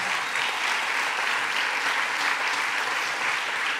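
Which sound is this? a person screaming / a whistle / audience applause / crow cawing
audience applause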